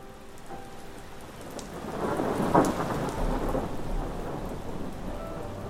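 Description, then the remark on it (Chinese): Heavy rain pours down steadily while a sharp crack of thunder breaks out midway and rumbles on beneath the downpour, with no voices present. “突然，天空划过一道闪电，在几声响雷之后，大雨倾盆而下。”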